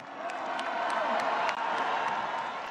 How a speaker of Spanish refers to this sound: Mira, mira la lealtad, mira cómo aplaude.